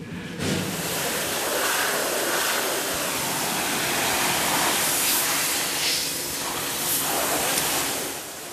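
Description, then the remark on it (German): A steam pressure cleaner sprays continuously with a loud, steady hiss and rushing noise as a man blasts the coarsest dirt off old oil barriers, its intensity shifting slightly as the jet moves across a surface. No one speaks. “Jetzt befreit er die Ölsperren erstmal mit dem Dampfdruckreiniger vom gröbsten Schmutz.”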